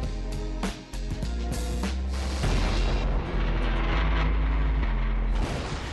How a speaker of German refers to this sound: Bleibt noch dran, bleibt noch dran, ihr hört das Intro, ihr hört das Intro, das läuft noch im Hintergrund.